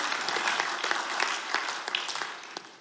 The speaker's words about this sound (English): If you, come on, if you're going to clap, let's clap today. Thank you, Jesus.